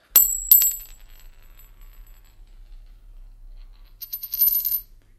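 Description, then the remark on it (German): A gold coin drops and rings with a bright metallic clink, bouncing twice, then a lighter shimmering jingle of coins follows after a pause of near silence. “Sei da, hast du eine Golddukaten?”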